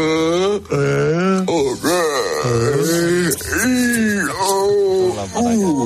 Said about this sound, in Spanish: Bosteza pronunciando las vocales.